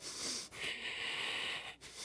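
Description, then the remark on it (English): Heavy, forceful breathing through the nose, loud: a short huff followed by a long, harsh rushing breath, with no talking. A person imitating the angry, flaring-nostril breathing they do when they get mad. “I'm breathing heavy”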